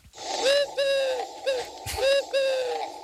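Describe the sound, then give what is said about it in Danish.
A small dove coos repeatedly, soft rounded calls arriving in two rhythmic phrases of several notes each, clear and fairly loud with no talking. “Det er en lille due, ikke?”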